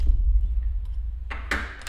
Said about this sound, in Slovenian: ima seveda odpirač na ključih.